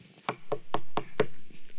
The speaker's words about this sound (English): I saw someone in there, you know, and, and the door keeps knocking and they're just waiting.